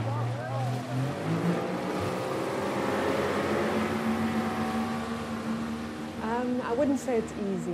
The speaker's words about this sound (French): Le petit bateau à moteur est attendu par les insulaires.